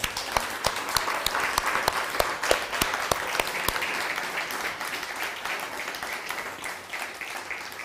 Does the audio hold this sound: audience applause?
yes